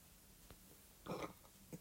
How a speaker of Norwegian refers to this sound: Jeg liker at jeg rapte noe inn i ermet. ja, et koronarap. Koronarap.